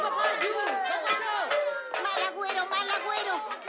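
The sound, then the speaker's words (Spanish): Many voices overlap in an agitated crowd hubbub in the streets at night as frightened people look up at the sky and grab pots and pans, steady, with excited calls rising and falling throughout and no single speaker standing out. “Por la noche, Heinrich duerme plácidamente cuando despierta de un sobresalto por el bullicio que se escucha en las calles.”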